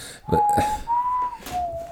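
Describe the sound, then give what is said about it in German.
A person whistles a short, steady tune of three long held notes, clear, with a few faint clicks and background noise between the notes. “Das war die, hat er diese auf so einem Stock aufge, also, aufgespießt und über dem Feuer gehalten also ich, und hat dabei so gepfiffen.”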